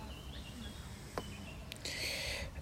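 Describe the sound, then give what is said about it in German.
Many small birds twitter and chirp in scattered bursts over a steady outdoor hum in Oberreuth, with a brighter flurry of high chirping near the end; no one speaks. “Ähm, ziemlich viel Vögel, also die zwitschern.”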